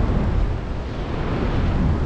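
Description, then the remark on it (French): Steady, loud wind buffeting the microphone, a slightly northerly wind on a beach at Saint-Leu, a continuous low rumbling roar with no pauses and no voices. “il y a, ouais, si, si, il y a du vent, vent un peu nord, c'est ça.”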